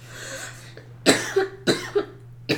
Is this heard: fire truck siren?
no